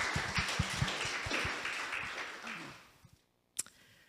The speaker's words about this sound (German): Sie wird für mich für zum ersten Mal als Übersetzerin dienen. Können wir ihr kurz mal danken? Applaus